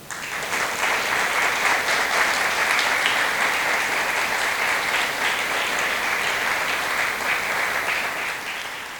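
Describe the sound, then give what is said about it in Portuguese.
A crowd applauds steadily for several seconds in praise of the Lord, a dense, sustained wash of many hands clapping at once with no voices standing out. “Eu quero uma salva de palmas para o Senhor.”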